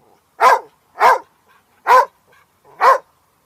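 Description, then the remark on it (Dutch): A dog gives four short, sharp defensive barks in a steady rhythm, each loud, with brief quiet gaps between them and no talking. “Dat is de verdedigende blaf.”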